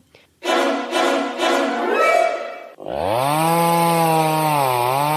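A power saw cuts loudly, starting with rough, pulsing bursts as it bites in, then settling into a sustained, high-pitched motor whine that wavers slightly in pitch.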